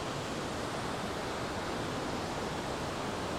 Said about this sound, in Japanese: まあ、写真で結構見るケースとか「そびの滝といったら」みたいな映像見るケース多いんですけど結構迫力すごいな